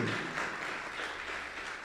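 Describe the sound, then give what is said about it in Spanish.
An audience claps steadily, a dense, continuous patter of many hands at moderate loudness, with no voices standing out over it. “Sí, aplauda, aplauda, aplauda porque es así.”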